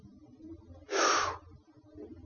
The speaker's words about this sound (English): You know what inspiration means, don't you? It means breathing in.